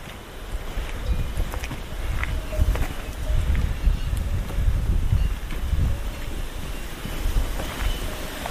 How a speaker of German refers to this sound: Es gibt Wasserfälle.